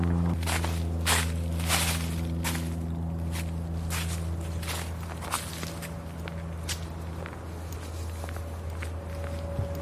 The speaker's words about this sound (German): Also gehen wir den ganzen Berg mal wieder bergauf.